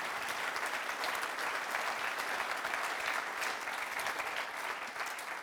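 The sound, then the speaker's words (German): Sustained audience applause, requested by the host to warm up the audience, a dense steady wash of many hands clapping at an even level for several seconds, with no speech over it. “Jetzt ist es so ein Zeitpunkt, wo ich Sie mal um einen Applaus bitte, damit wir so mal ein bisschen warm einsteigen.”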